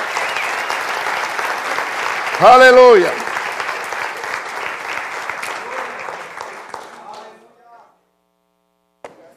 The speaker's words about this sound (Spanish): Y si lo cree, dale el aplauso al Señor. Estamos de pie.